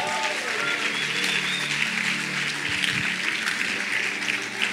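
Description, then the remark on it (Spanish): A church audience applauds the ministry team steadily for several seconds, a dense, even wash of clapping that holds at a consistent, fairly loud level, with faint murmuring voices underneath. “Y podemos dar un aplauso a todo el equipo que hoy nos ha ministrado.”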